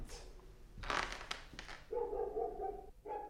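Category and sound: animal, dog barking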